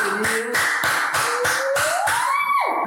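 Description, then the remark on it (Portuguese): Steady rhythmic hand clapping welcoming a guest, about ten sharp claps at an even pace, with a sustained whistle-like tone sliding upward beneath them before cutting off near the end. “Palmas”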